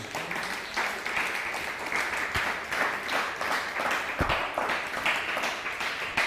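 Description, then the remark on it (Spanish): Sustained audience applause, many hands clapping in a dense, steady wash of noise that stays fairly even in loudness throughout, with no voices standing out. “un fuerte aplauso a Alemania.”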